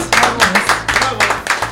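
An audience claps steadily to applaud INSEE, a dense patter of many hands that stays fairly loud and even throughout, with a low hum running underneath.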